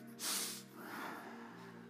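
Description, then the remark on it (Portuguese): A speaker demonstrates a deep breath drawn in through the nose: a sharp, hissing sniff followed by a longer, softer rush of air, with no talking and a faint steady hum underneath. “Dá uma respirada fundo. Faz assim.”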